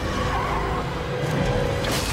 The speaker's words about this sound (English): Then they get into this big car accident, right?